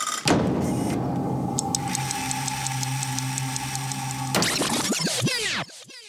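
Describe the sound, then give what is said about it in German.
An alarm clock goes off with a steady buzzing drone and fast, regular high-pitched beeps, then breaks into a louder, warbling, chaotic ringing before abruptly stopping. No one speaks. “Der Wecker hat sowieso keine Bedeutung mehr.”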